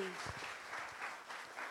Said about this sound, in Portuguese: Vamos aplaudir o Senhor Jesus? Amém.